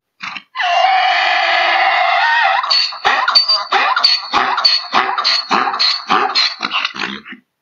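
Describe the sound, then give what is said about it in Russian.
A mule brays loudly: a long, strained, wheezing squeal gives way to a rapid string of rhythmic, rasping honks that gradually trail off. “вот эти чудесные, странные, пристранные звуки, конечно же, издает мул,”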